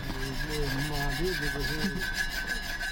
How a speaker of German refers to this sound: macht die eiserne Pfanne sauber.